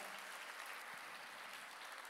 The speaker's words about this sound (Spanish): Yo creo que Él se merece un aplauso de gratitud y de alabanza esta mañana.